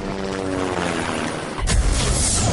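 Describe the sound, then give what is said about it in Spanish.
A helicopter roars, a steady droning engine with a low rhythmic rotor hum, swelling into a louder, rushing whoosh partway through as if passing overhead. “Le pedimos un ride en helicóptero a Flavino Ríos y regresamos”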